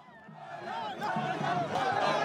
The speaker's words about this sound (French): Dans les rues de Tombouctou, la foule chante les louanges du héros français venu les aider dans leur lutte contre le terrorisme.